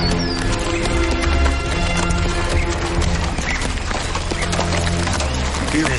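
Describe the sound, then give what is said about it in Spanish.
Horse hooves clip-clop in a steady run of sharp knocks from a horse carrying two riders before opening castle gates, fairly loud, over a dense, busy background of rumbling noise, with a faint whinny-like sound mixed in. “Frente a ellas, Cervantes a caballo y Sancho montado en él.”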